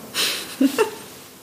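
A breathy exhale through the nose, followed by two short voiced huffs, like someone puffing heavily for a moment; no one talks.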